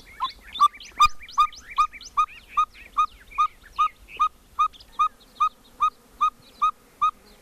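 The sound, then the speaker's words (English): A biologist whistles an imitation of a cactus ferruginous pygmy owl at sunrise in a canyon with saguaro cactus and mesquite at Organ Pipe National Monument: a long, steady series of clear, evenly spaced toots, about two per second, with other birds chirping faintly at the start. “… calls for a cactus ferruginous pygmy owl. It's the size of his fist and hard to hear.”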